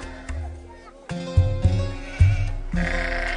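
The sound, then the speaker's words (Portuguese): Several sheep bleat in overlapping, wavering calls, like a small flock, with a few louder cries standing out against a steady background of animal noise. “Tinha três mil ovelhas e mil cabras.”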